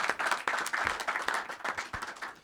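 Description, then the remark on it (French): Steady audience applause for two people, a dense wash of many hands clapping continuously at a moderate level with no voices standing out. “Merci à tous les deux, on les applaudit, s'il vous plaît.”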